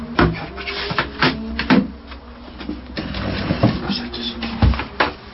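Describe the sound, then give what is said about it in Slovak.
A wooden folding chair that folds with a single movement being folded and handled, with a series of sharp wooden clacks and knocks spread unevenly over a few seconds, while a person talks in the background. “Skladacie stoličky, ktoré jedným, jedným pohybom sa dajú zložiť aj tak spraviť, aby sno sa dalo na nej sedieť.”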